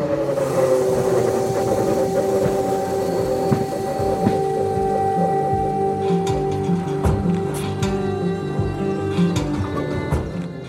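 A sustained, droning air raid siren wail in Lviv, Ukraine, holds steady over a continuous rumbling, mechanical background, with scattered clanks and clicks throughout. No one speaks.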